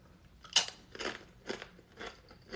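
Chewing of a plant-based tuna sandwich, with five crunchy bites landing in a steady rhythm about twice a second, the first the loudest, and no one talking.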